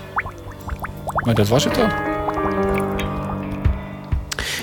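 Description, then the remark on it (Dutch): Water bubbles and gurgles as a ship sinks, in quick bursts of rising blips, loudest early on, then settles into softer burbling while a voice speaks a short line over it. “Je hoort nog wat borrelen.”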